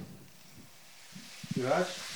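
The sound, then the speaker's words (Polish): Mushrooms sizzle in a frying pan as the heat is turned up, a steady crackling hiss that swells louder toward the end, with a brief voice sounding over it. “Ależ się hajcuje!”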